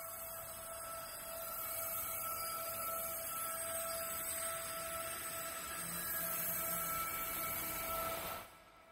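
Sustained, droning score music for a Dune film, imitating wind sliding over golden sand: steady held tones over a breathy, hissing wash that swells slightly, then cuts away near the end. No voices.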